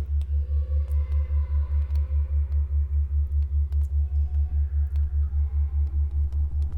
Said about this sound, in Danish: Altså lydene kommer fra en tonegenerator, som har syv øh, oscillatorer, som hver laver deres forskellige lyd. Man kan sige, at når toner rammer hinanden, så interfererer de, og så skaber det sådan en puls.